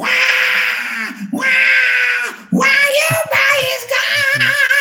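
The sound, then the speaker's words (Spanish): A voice imitates an angry baby's raspy, strained cry in a few loud, drawn-out wails with brief breaks, followed by choppier, growling vocal bursts. “Y si el bebé se enoja, está se enoja y empieza a hacer”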